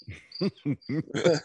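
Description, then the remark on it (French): A voice in Boucherville imitates crickets chirping with a run of short, trilled "tri, tri, tri" syllables repeated in quick succession, over a thin, steady high-pitched whine. “Ils entendent les grillons en arrière. Tri, tri, tri, sans arrêt”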